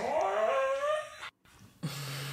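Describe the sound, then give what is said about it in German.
A pet dog growls in one drawn-out, rising, whiny vocalization lasting about a second. After a short silence, a steady low hum follows. No one speaks. “das war mein Hund.”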